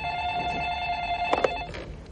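A telephone rings with a steady electronic tone, clear, then cuts off with a couple of sharp clicks, like a receiver being picked up. Nobody speaks.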